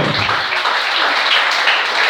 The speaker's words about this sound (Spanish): Denle el aplauso a Cristo.